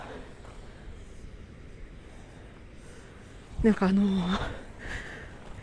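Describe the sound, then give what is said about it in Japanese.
Steam hisses steadily from a volcanic sulfur vent on a mountainside, where bright fluorescent-yellow sulfur has solidified around the outlet. It is a continuous breathy rush with a puffing sound like a steam iron, filling the background, while a person speaks briefly over it partway through. “エア、エアコンじゃないけど、アイロンのね、プシュプシュ言うような音。”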